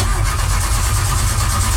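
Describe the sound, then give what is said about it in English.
A car engine cranks over and over with a steady, rapid chugging rhythm, loud, never catching or settling into a run during the short stretch, because the vehicle was not plugged in. No one speaks. “As you get in your car and you're getting ready to head to work or wherever you're going, and you won't turn over because you forgot to plug in the vehicle or it's turning over and it just doesn't want to catch.”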